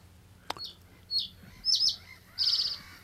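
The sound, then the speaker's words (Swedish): A reed bunting sings a short, simple phrase of three or four bright, high chirping notes, each slightly longer than the last, with a brief click at the start and no talking. “Här har vi sällsparens enkla och mycket trevliga sång det är ju ofta man, man hör sången förrän man, ja.”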